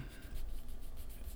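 Soft, continuous scratchy rubbing of a pen writing on the inside of a hand, quiet, with faint repeated strokes and no voices.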